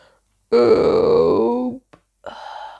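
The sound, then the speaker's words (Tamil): A voice imitates a loud, drawn-out burp that sinks in pitch over about a second, followed by a brief pause, a small click, and a shorter, quieter vocal sound. “அப்படின்னு ஏப்பம் விட்டார்”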